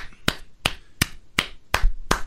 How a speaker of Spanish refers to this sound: ¿Por qué aplaudes? ¿Por qué aplaudes, estás aplaudiendo,